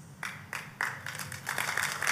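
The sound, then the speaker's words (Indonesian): An audience begins clapping, a few separate sharp claps at first that quickly thicken into a steady patter of applause from several people, with no talking. “Jangan tepuk tangan dulu Pak.”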